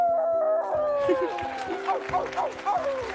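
A wolf howls in long, sliding, tonal wails, with several overlapping cries rising and falling, fairly loud, like a small chorus of howls.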